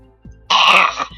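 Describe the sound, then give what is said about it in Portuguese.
A person vomiting gives a single loud, harsh retching heave: a brief guttural lead-in, then about half a second of strained, raspy gagging that cuts off abruptly. “é eu vomitando”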